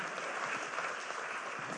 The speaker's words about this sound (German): Applaus mehr für die Herren hier. Und danke sehr.